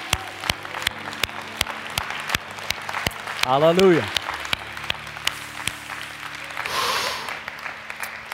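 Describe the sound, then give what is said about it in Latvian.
An audience claps in a steady, even rhythm, sharp claps ringing out under a loud shouted exclamation from one voice, with a brief swell of crowd noise toward the end. “Dosim viņam aplausu!”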